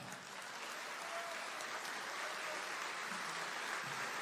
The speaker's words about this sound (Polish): Ogromne brawa!